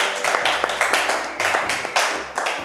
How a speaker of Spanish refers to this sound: por favor, fuerte aplauso otra vez